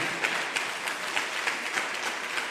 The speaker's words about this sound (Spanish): Gracias, me aplaudí fuerte donde estás.